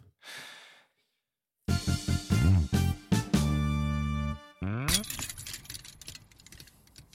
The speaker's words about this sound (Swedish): Alltså den där gingen låter som en prutt. den är fin.